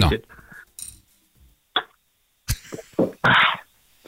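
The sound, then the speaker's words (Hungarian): Someone takes a sip from a glass: a light clink, a few soft slurps and gulps, then a breathy exhale, with small mouth noises between them. “Várj, akkor egy, egy kortyot, várj egy”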